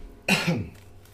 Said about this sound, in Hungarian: és te is ilyen nagy, nagy lendülettel gyakorlatilag szinte összeesel, leesel róla, és így kicsit köhögsz.